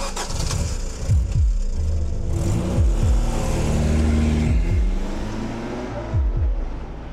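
A car engine starts up and keeps running loudly, its pitch repeatedly swelling and dipping as it revs in uneven pulses. No one speaks.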